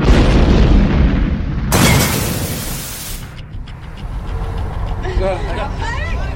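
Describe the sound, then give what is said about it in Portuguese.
A loud explosion destroys the right side of a warehouse: a deep booming rumble erupts into a harsh, crackling burst of blast noise, then fades into lingering low rumble with faint voices surfacing near the end. “Mas o disparo é inevitável e quem está de fora vê a explosão intensa que destrói destrói a lateral direita do armazém.”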